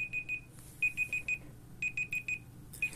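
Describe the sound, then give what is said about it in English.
A timer alarm marking the end of an hour of writing beeps in repeated bursts of four quick, high-pitched electronic tones with short pauses between groups, clear, with no talking. “Now, you're just about to hear my pips go here to tell you the hour's up.”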